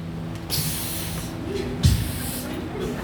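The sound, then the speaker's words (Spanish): A voice imitates a snake's hiss: a long, sharp sibilant hiss, then a second shorter one, both fairly loud over a low background murmur. “Anda como que serpientes”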